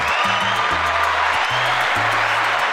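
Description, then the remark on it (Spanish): A steady wash of applause for university rector John Van Cliff carries on without a break, with low, sustained bass notes that shift in pitch running underneath. No one speaks. “Aplauso a John.”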